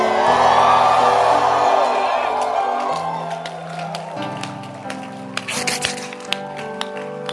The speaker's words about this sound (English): Can I hear someone shouting this morning?